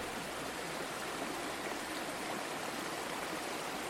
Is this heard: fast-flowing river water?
yes